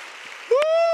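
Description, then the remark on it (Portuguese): An audience claps for the Lord in a steady, diffuse patter, then a loud, sustained shouted voice rises over the continuing applause. “Se você crê nisso, fique em pé e aplaude o Senhor.”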